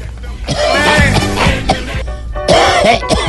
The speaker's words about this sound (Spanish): Llegó calladito, juicioso. no, yo llegué calladito, llegué con tos.